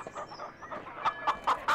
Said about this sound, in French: Mais au bout d'un moment, il entendit un bruit derrière lui. Une sorte de petit caquettement.